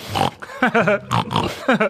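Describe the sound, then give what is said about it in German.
A contented pig grunts in a series of short, nasal, voiced snorts and oinks, fairly loud, in an uneven rhythm with brief pauses between bursts. “Ja, und wenn wir mit der Welt zufrieden sind, dann laufen wir auch gern rum und grunzen so vor uns hin.”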